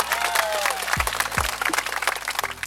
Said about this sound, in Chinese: 先给自己一个掌声。